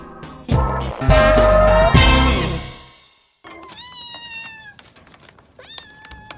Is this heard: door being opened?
no